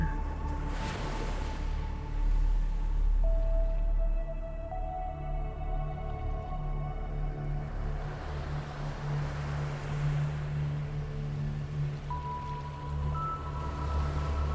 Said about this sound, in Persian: هوای مرتوب رو احساس کنین بوی اقیانوس رو حس کنین صدای امواج رو بشنوین که به شنها میخوره